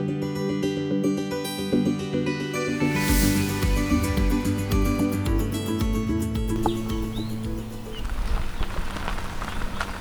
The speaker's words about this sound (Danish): Her skinner solen, og fuglene fløjter.